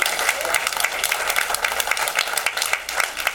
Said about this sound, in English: Uh, give them a round of applause for even offering.